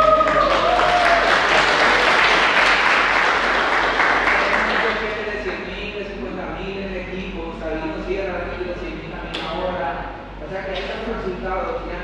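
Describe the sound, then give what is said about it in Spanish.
An audience breaks into loud, dense applause, a steady crackle of many hands clapping for several seconds, then it thins out as a man's voice begins speaking over the tail end. “Y eso me da un aplauso”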